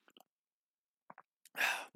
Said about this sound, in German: Und jetzt, wo es auch so ein bisschen ernster wurde, das Thema, habe ich angefangen, meinen Tee zu schlürfen. Das hat man vielleicht gehört.